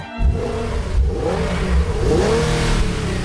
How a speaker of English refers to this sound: The trio of turbocharged engines available in the Infiniti Q50 sports sedan. With up to 400 horsepower, your test drive may leave you craving an encore.